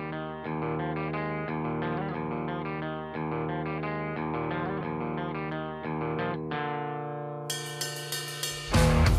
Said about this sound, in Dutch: Het is natuurlijk geen akoestische track, dus daar komt niet erin. Maar het is wel een goede, chille, sappy track.